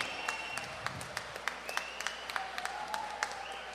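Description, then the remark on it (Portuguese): An audience at a band's show applauds the sound and lighting technician for a few seconds, a steady patter of scattered claps with a couple of sustained whistles rising over it, at a fairly soft level with no talking. “Uma salva de palmas para esse sujeito.”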